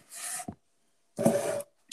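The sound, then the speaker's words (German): Two short bursts of scratchy, rasping friction as a pen scribbles across paper, writing down an answer during a guessing game, separated by a brief pause, with a small tap between them; no talking. “Ich will nur kurz den Stift und schreibe es mit auf.”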